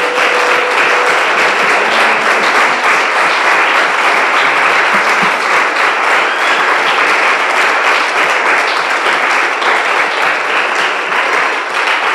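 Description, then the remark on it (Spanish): A church audience applauds the Lord at a morning service, loudly and steadily for about twelve seconds, a dense wash of many hands clapping at once with no talking over it. “Dale un aplauso al Señor esta mañana.”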